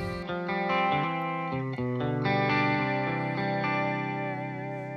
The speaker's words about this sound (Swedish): Jag har ett korus. Jag jobbar lite grann på att få till korusljuden i hållningarna. Har, har du någon bra koruspatch?